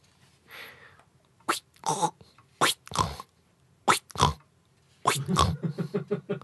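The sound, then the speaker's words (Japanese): A voice mimics a squealing car windshield wiper blade with piggy snorting noises: a few short, nasal bursts spaced apart, then a quick stuttering run of snorts, fairly loud. “豚鼻みたいな音になる時あるさワイパンつって意外と意外とストレス”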